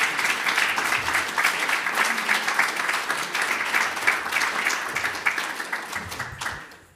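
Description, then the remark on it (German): An audience applauds steadily to welcome a returning guest, a dense wash of many hands clapping at a fairly loud, even level before tapering off at the end. “Applaus”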